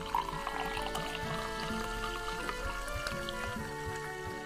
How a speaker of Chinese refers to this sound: 啤酒在咕噜咕噜的冒泡。